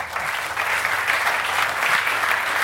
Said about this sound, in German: Äh, ich bitte um einen kräftigen Applaus für den Geschäftsführer und Publisher von Korrektiv, David Schraven.